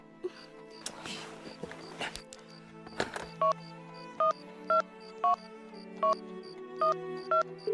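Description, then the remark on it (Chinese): A telephone number is dialed to call the workshop, as a series of short, evenly spaced electronic keypad tones, each a brief two-note beep. Before the tones come some rustling and clattering handling noises. “我给车间打电话问问。”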